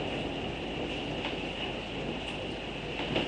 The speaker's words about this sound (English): Can you experience this storm and taste emptiness? Can you hear emptiness in the sound of that wind?